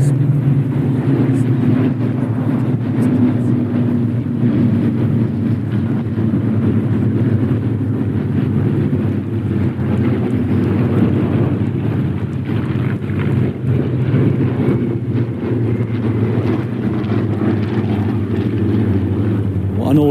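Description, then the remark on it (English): Spitfire and Hurricane fighter planes fly by, a loud, continuous low droning roar of piston engines with a steady rumbling hum and some wind buffeting, holding for about twenty seconds without talk. “Oh, a flyby from the Spitfires and Hurricanes.”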